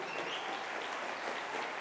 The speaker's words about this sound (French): l'avenir en commun.fr, qui est euh, le résultat du travail d'une personne qui a décidé de donner ce coup de main à la campagne. Et vous pouvez appeler, on peut l'applaudir.